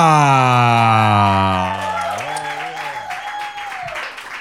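An audience claps and cheers steadily for a few seconds as a performer is announced on stage at a show, partly masked by a loud sustained tone that slides downward in pitch over the crowd noise.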